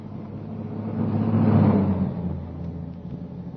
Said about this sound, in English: The timing was perfect. As the car stopped, the first post office van was already approaching.